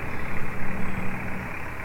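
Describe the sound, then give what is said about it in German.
A car engine idles with a steady rumble, its low hum rising and falling in a quick, uneven pulse for a couple of seconds, with no voices. “Nein, das Auto.”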